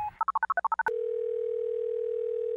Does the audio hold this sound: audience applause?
no